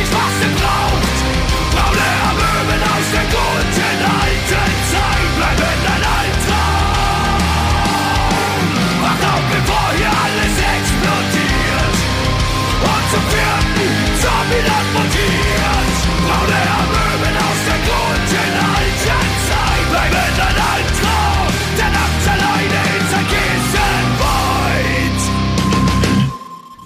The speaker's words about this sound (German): ein kurzes Break, äh, spielen Musik und dann beichte ich. Bis gleich.